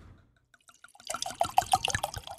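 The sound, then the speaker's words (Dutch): Champagne being poured into a glass: a few faint drips, then a steady splashing pour with bubbly, fizzing crackle that grows louder toward the end. “Doe mij, eh, ja, boven. Helft? Nou, minder dan de helft, want ik moet rijden.”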